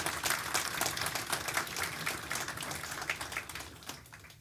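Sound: audience applause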